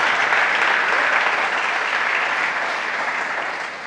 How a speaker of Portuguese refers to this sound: Você pode aplaudir?